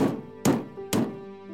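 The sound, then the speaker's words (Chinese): Three sharp knocks rap on the wooden door of a farmhouse, evenly spaced about half a second apart, each a solid hollow thud with a brief ringing tail, while a low steady tone hums underneath. “天神就敲了一敲这个农庄的门”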